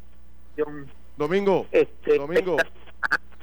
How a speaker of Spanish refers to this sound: te, escucho entrecortado. Te escucho entrecortado. Mira a ver si eh, el celular te puedes mover de área o algo así.